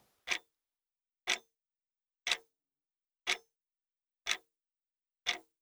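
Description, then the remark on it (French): A clock ticks steadily, six crisp clicks about one second apart, clear against complete silence with no voices, accompanying a guided practice session. “Écoutez quelques instants le tic-tac qui vous accompagne pendant cette séance.”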